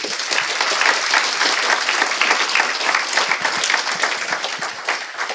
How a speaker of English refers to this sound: So give those guys a round of applause as well.